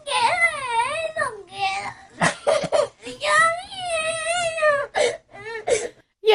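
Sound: child crying and sobbing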